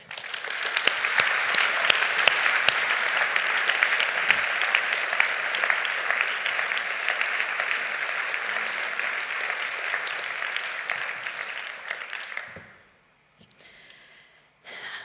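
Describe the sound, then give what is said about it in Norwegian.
An audience applauds a woman guest, clapping steadily for about twelve seconds, a dense, even wash of many hands that stays loud and then cuts off abruptly, followed by near silence and a faint trailing sound. “Vi må gi henne en applaus.”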